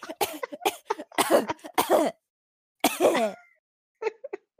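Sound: coughing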